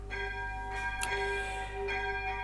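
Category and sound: signal or alarm, church bell ringing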